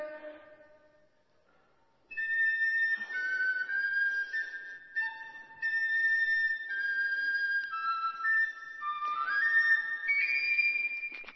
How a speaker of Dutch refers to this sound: ga die fluit dan maar oppakken. Doet het even, even testen.